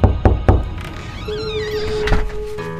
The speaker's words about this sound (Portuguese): Solta a vinheta.